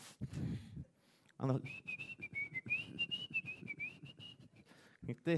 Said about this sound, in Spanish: Y por eso, eso, cuando tú haces eso, te, te hasta te agarras chiflando por nada.